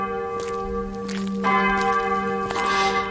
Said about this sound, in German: Den Kirchenglocken sei Dank. Immer dem Geläut nach. Aha, da vor mir ist sie schon zu sehen, die Schlosskirche von Wittenberg.